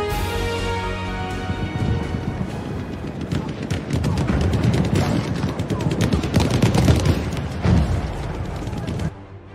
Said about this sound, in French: Le 16 décembre 1944, dès l'aube, l'artillerie allemande lance une pluie d'obus sur plusieurs villes belges.